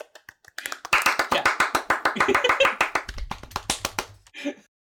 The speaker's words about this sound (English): Deleted! All of us clap.